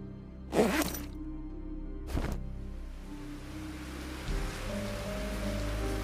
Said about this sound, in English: At around 10.30, I went to bed, listening to the rain as I dozed off.